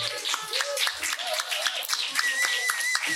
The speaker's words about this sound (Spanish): porque yo sé lo que es estar ahí y hay que darle un aplausito, por favor, que lleva todas las jornadas currando.